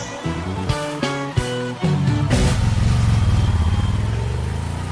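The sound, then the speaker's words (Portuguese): A motorcycle engine revs in a few sharp bursts, then settles into a loud, steady throbbing roar, with no one talking. “Pensou no bem-estar de sua moto? Pensou RC Motos.”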